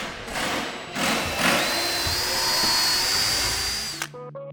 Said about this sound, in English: so there's two benches and a, a, bookshelf happening. Everyone's using drills and drivers. They're working in small teams.